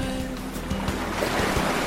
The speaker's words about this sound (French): J'écoute le clapotis de l'eau et la mer murmurer.